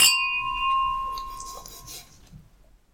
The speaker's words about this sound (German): Ich würde sagen, lasst uns erstmal kurz anstoßen. Immerhin gibt es guten erneuerbaren Rebensaft. Genau, zumindest gibt es den. Zum Wohl. Zum Wohl.